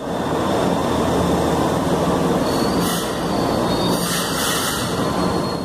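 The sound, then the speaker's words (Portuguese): A metro train rumbles steadily along the rails, loud, with bursts of high metallic wheel squeal cutting in over the continuous roar. “E minha decisão mais sábia talvez foi ter criado o metrô e finalmente investido em um transporte coletivo de massa.”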